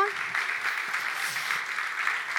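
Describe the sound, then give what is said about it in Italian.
An audience applauding a speaker: a dense, steady patter of many hands clapping at once, sustained at an even, moderate loudness throughout without pauses or voices. “Facciamo un applauso”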